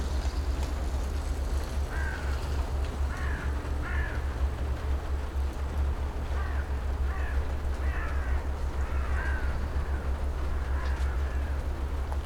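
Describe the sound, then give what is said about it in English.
Crows cawing repeatedly as they fly around over an asparagus field without landing, over a steady low rumble of wind or machinery, their harsh calls coming in scattered bursts across an open outdoor space. “Here is a recording of an asparagus field for you. And it really does sound like the crows are flying around, but never landing in them.”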